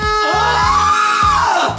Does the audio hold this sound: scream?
yes